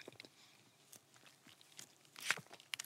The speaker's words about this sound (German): Aber jetzt, jetzt beiß ich mal rein. Mm. Mm. Könnt ihr es hören?